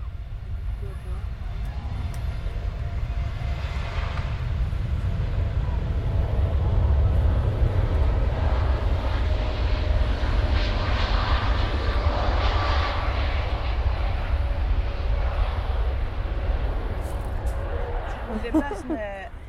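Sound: airplane passing overhead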